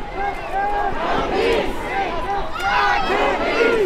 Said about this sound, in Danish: Foråret i USA foregik til lyden af henholdsvis nationale protester mod diskrimination og ulighed og en dundrende stillhed fra landets coronalukkede gader.